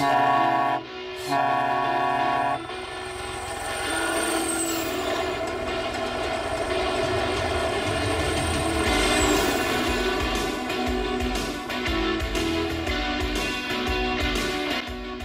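vehicle, helicopter taking off

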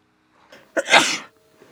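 human body sound, sneeze

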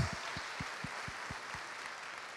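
crowd, audience applauding

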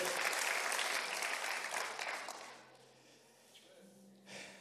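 crowd, audience applauding loudly

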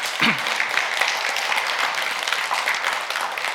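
crowd, applause

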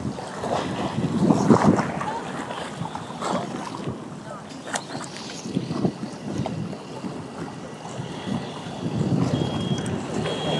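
nature, strong wind outdoors

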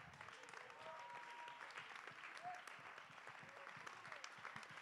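crowd, audience clapping hands

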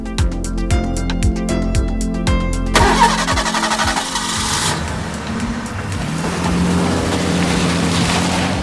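vehicle, car engine starting

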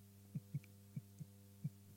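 sound effect, heartbeat

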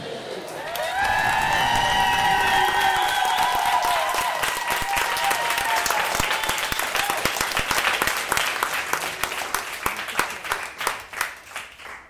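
crowd, applause and cheering

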